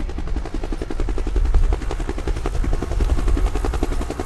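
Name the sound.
helicopter flying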